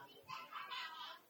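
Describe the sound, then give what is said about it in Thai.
A child's voice imitates a bird call, a brief high, clucking, chirpy phrase lasting about a second, fairly soft, with no other sounds around it. “แล้วเสียงนกร้องมันเป็นไงฮะนกที่นี่มันมีเสียงยังไงนะอะายากไม่ได้ยินอยากฟังเสียงนกร้องสัก”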